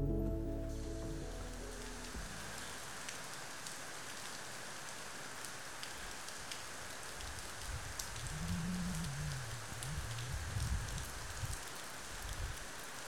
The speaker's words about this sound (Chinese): 这个雨声是不是很动听呢？因为酒店的房间呢是一个个的小木屋，顶棚是帐篷，所以雨水打在屋顶的声音特别特别的响亮。在半梦半醒之间呢，我甚至一度以为雨水要穿过屋顶而来。